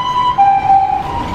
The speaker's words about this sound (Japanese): 救急車が通っていきました。